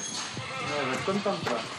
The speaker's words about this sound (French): vont nourrir leurs chèvres le matin, Allez les filles,